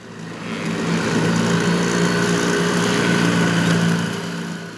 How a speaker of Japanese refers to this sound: 水上売店の船がね、えー、ぐーっと近づいてきて、ね、えー、焼きそばとかたこ焼きとかそういうものをね、えー、売ったりして、船に乗りながら船が、船のお店がやってくるという、そういう場所があるんですけれども、そのね、船のエンジンの音、ね、えー、収録したことがありまして